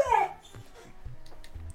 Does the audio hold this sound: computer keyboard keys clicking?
no